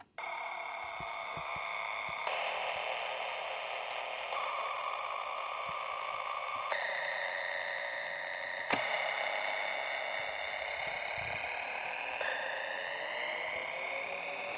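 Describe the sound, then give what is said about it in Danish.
A red plastic children's toy keyboard, simply circuit-bent with only a pitch control, drones a continuous, buzzy electronic tone that shifts abruptly in steps, then slides steadily higher in pitch as its speed is turned up near the end. No one speaks. “sådan her er et, et, et, et rødt plastik børne keyboard. Og det er sådan et, et, et meget, meget sim, simpelt bent.”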